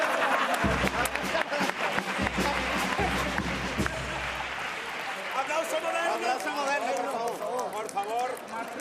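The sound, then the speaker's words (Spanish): A crowd claps steadily and loudly throughout, dense overlapping handclaps filling the space, while several voices chatter and call out over the applause. “A ver si aprendimos a aplaudir.”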